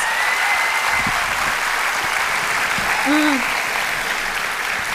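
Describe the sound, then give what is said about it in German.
Steady, dense audience applause fills the whole stretch at a constant level, with a brief hooting whoop rising out of the clapping near the end. “Ein Applaus”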